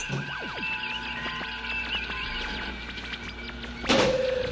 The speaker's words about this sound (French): Vous avez fermé la porte.